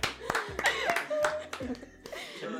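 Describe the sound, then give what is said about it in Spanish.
A handful of sharp, irregular hand claps, around six, ring out over chuckling and laughter, with voices running underneath throughout. “No voy a decir más que un aplauso, por favor.”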